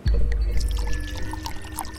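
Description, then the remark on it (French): Wine glugs steadily straight from the neck of a bottle for a couple of seconds, a full, bubbling flow with a continuous low gurgle and no voices. “Au goulot.”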